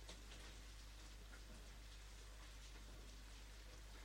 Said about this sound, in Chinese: 嗯，下雨真的是好抑郁啊！